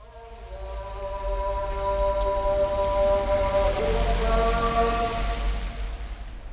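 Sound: rain falling on street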